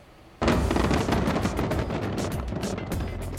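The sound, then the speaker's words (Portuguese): A sudden loud onset of dense, continuous booming and crackling from a record-setting New Year fireworks display of 10 tonnes of fireworks over Ras Al Khaimah, United Arab Emirates, bursting in quick succession, with sharp bangs scattered through a steady rumbling roar. “Olha, uma queima de fogos de artifício neste fim de ano entrou para o livro dos recordes mundiais.”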